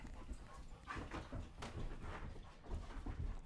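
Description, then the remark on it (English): Dogs, including a big floppy-eared dog, moving around, with steady shuffling, scattered light paw taps on the floor and faint panting, continuous with no one talking. “dogs are on a. They're just special right now.”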